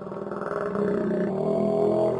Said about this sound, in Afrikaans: Oek. Skus, jammer maat, dis net o, dis net my maag. Oek. Ooh, my maag, ek het nog nie geëet nie.